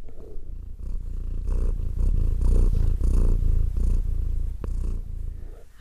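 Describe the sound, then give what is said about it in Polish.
A female cat, lying among paper notes, purrs steadily, a low rumbling drone pulsing in a regular rhythm of breaths for several seconds, with no talking over it. “Słuchajcie, moja kotka, muszę to powiedzieć, tak bardzo, bardzo się zainteresowała to temem, że ułożyła się tutaj pomiędzy moimi wszystkimi notatkami i po prostu tak bardzo się w nich rozgościła, tak cudownie mruczy, że musicie to usłyszeć.”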